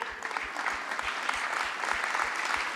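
An audience applauds a male speaker continuously in a dense, steady wash of clapping, with a regular low thumping pulse running underneath throughout.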